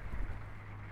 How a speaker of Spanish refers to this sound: Hoy estamos escuchando que llueve muy fuerte